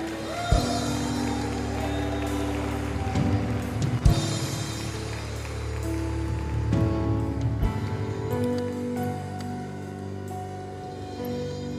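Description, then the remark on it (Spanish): A large crowd claps loudly and steadily for around ten seconds, a dense crackling wash of applause with sustained musical tones running underneath and a few sharp thumps. “Dale un fuerte aplauso a Jesús.”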